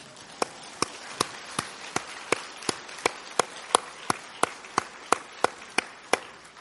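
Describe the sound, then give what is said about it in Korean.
An audience claps in steady unison at the close of a lecture series on the Book of James, about sixteen sharp, even beats over a soft wash of scattered clapping, with no voices. “박수 한번 쳐야 되지 않아요?”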